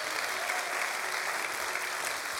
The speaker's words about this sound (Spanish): Vamos a darle un aplauso si tú lo crees.